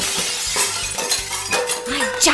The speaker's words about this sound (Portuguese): caixa de caco de vidro.